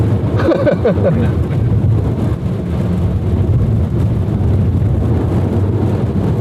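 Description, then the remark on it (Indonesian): A car travelling at 70 coasts after the accelerator is released, automatically slowing gradually toward a stop, with a loud, steady low rumble of road and engine noise and no revving; a faint voice-like murmur appears briefly near the start. “Even kalau sekarang lagi jalan 70 nih, kita lepas gas, dia akan gradually stop sampai nol.”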